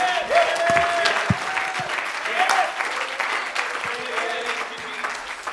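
An audience claps steadily and loudly, a dense wash of many hands with no clear rhythm, while a few voices call out faintly beneath it.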